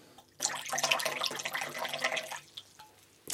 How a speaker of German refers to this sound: Ich gieße mir auch eine Tasse ein.